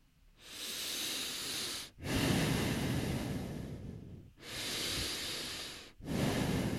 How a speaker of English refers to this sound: Deep breathing, I see. Some some motherfucking deep breathing. uh, no, no, no, I don't. I was just growling at my mic.